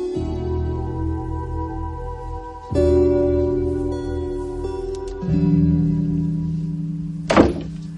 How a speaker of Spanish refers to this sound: El sonido de la puerta la sobresalta y se incorpora.